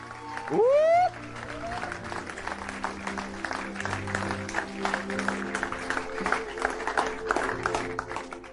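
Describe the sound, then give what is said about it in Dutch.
A church audience breaks into sustained, dense applause given to God, lasting several seconds, opening with a loud rising vocal whoop, while a soft sustained tone hums underneath. “Geef een applaus aan God.”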